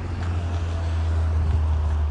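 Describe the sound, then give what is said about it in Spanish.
A car passes by, its deep engine rumble and road noise holding steady and fairly loud throughout, with no one talking. “Mira, está pasando otro coche por aquí, ahora.”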